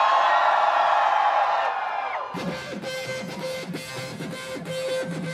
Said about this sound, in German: Juni 2021. Gay Pride Parade, Warschau. Höllisch heiß. Mitten in der Regenbogenmenge.